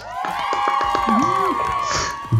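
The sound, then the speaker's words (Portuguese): A crowd applauds and cheers loudly and continuously for a guest being introduced, with high whoops and shouting voices rising over a dense wash of clapping, ending in a brief burst. “Palmas para ele.”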